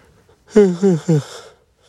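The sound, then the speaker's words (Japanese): A single voiced yawn, breathy and drawn out for about a second, its pitch sliding downward in three quick swells before trailing off into an airy exhale, with no talking. “で、これあくび出るでしょ、これはね。”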